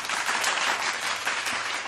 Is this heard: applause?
yes